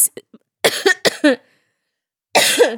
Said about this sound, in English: Now I ain't coughed one time till I start talking to you.